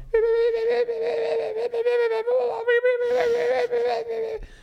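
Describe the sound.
A voice imitates the ventilation fan of a windowless hotel bathroom with a steady, droning hum held for about four and a half seconds. The hum is fairly loud, with a slight wavering texture.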